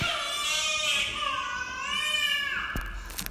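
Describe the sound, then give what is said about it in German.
A baby in the audience at a confirmation service cries in one long, high, wavering wail that rises and falls for a few seconds, clear, with no talking over it, ending in a faint clatter. “Ihr dürft genau viel, viel lauter als das Baby zu raufen.”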